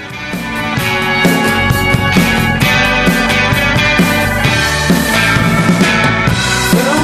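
A loud, full-band instrumental opening of a pop song plays with a steady driving beat, strummed guitars and bright cymbals, no vocals yet, filling the whole stretch.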